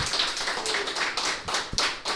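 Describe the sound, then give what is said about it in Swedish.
Steady applause from a group during a radio broadcast, a dense crackle of many overlapping hand claps with a few sharper, louder claps standing out, sustained without a break and with no talking. “Jag en applåd.”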